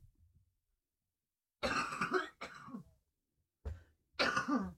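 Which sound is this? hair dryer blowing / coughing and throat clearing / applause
coughing and throat clearing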